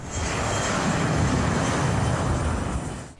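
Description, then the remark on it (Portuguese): A Brazilian Air Force (FAB) airplane takes off from an airport, a loud, steady engine roar with a broad rushing hiss that holds evenly for about three seconds before easing slightly at the end. No voices. “Ao fundo, a decolagem do avião da FAB que leva esperança às famílias.”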